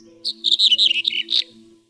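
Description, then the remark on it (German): Small songbirds, redpolls, corn buntings, yellowhammers, reed buntings and red-headed buntings, chirp in a quick run of bright, high twittering notes, fairly loud, over a faint steady low hum. “Erlenzeisig, Bluthänfling, Berghänfling, Birkenzeisig, Grauammer, Goldammer, Rohrammer und Braunkopfammer.”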